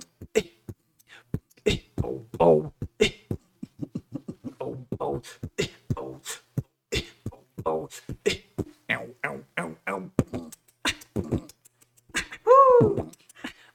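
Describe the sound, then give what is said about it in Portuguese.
A single performer beatboxes a soundtrack theme: rapid, crisp mouth clicks and pops in a steady rhythm, woven with hummed melodic vocal lines and a bending, warbling sung tone near the end. “eu gostava de fazer trilhas de novela, trilhas de filme. …, qual foi o som que você fez a primeira vez? Asas Indomáveis.”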